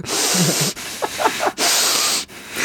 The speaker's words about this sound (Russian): типа, так громко дышит, я прям не могу.